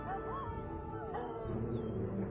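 Several dogs howling together in long, wavering cries, with a dense pack clamor and occasional yips underneath; the sound stays loud and continuous throughout, with no one talking.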